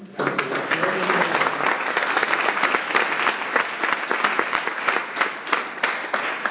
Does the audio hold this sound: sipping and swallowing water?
no